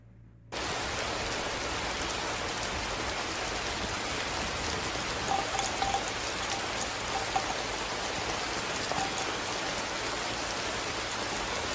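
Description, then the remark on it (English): A recording of steady rain falling without pause, a dense, even hiss with occasional brighter drips and patters standing out. No voices, just the continuous wash of rainfall. “that rain segment just for a couple of minutes, that would be great”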